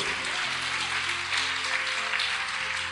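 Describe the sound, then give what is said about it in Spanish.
A church audience claps loudly and steadily in praise of God, a dense wash of many hands with no pauses, over a low sustained musical tone underneath. “Dale fuerte ese aplauso al que vive y al que reina por los siglos de los siglos.”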